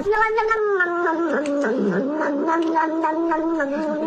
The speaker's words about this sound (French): Le chat, là Oui, oui, le chat qui boit son lait, et tout ce que les TikTokers ont rajouté par-dessus.